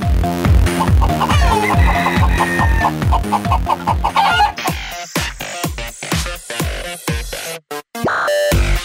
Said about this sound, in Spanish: Despabilate. Inicia tu día con la mejor actitud. El gallo. Tu despertador del buen humor.